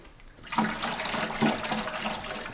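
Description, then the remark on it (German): A steady rushing hiss of water mixed with carpet cleaning chemical spraying out of the bottom of a carpet cleaning machine used on a stain, starting abruptly after a brief quiet moment and continuing fairly loud with slight surges. “Wie das Wasser jetzt da unten rauskommt.”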